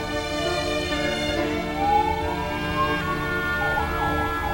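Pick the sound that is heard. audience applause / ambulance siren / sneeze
ambulance siren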